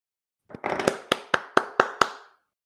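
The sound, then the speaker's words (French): A short burst of hand clapping celebrating Stephen Curry becoming the most prolific shooter in NBA history: a few quick claps blur together, then five or six evenly spaced, sharp claps follow, each with a brief ringing tail. No voices are heard. “Je ne permettrai pas applaudir.”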